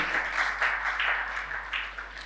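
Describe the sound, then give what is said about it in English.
An audience breaks into steady applause, a dense wash of many hands clapping at an even, fairly loud level throughout, with no voices standing out. “A round of applause for this woman.”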